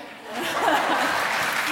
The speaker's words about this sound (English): Okay, vote now. Loudest wins. Shy bloke? Oh, a couple of claps.